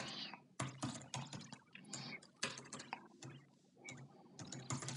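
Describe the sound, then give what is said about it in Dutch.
Rapid, irregular clatter of keys as someone types a question on a computer keyboard, fairly quiet, with short pauses between bursts and no talking. “En eh, die ga ik nu even typen.”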